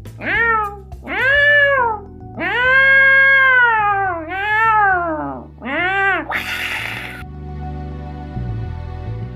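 A cat meows loudly and repeatedly, about six drawn-out, wavering cries in close succession, followed by a brief hiss-like burst and a quieter tail of background noise.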